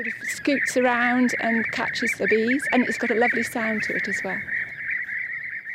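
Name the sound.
european bee-eater calls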